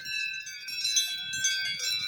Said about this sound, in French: Écoutez ça. Petit troupeau de vaches.